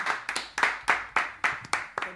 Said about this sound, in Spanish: Un aplauso por eso.